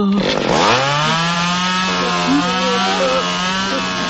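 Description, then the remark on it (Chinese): A power saw, like a chainsaw, cuts through a door: a quick rev-up, then a loud, steady buzzing whine that holds for several seconds with slight wavers in pitch. No voices. “但是这一次他是自投罗网，当他把门锯开走出来的时候，鹰架会塌得快一点，刚好把他压住。”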